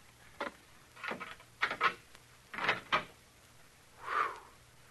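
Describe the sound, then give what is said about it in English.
A door being opened: a quick series of rattling clunks and scrapes, then a softer drawn-out creak as it swings. Fairly quiet, with no talking. “Uh, this is the door, I think.”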